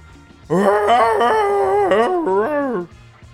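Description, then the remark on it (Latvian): A person imitates Chewbacca's roar for a prank phone contest, a single loud howl-like growl rising and falling in pitch for over two seconds, alone with no talking. “lai laimētu 100 dolārus, bija jāierāc Čubakas rēciens”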